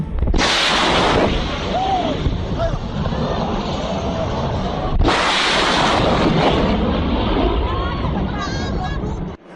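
Two loud, sudden sonic booms from a supersonic aircraft crack out about five seconds apart, each followed by a long, heavy rumbling roar, with faint crowd murmur underneath.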